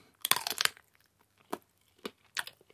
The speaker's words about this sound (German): Ich muss von jeder Wurst abbeißen und dann bewerten, welche Wurst sich dabei am besten anfühlt.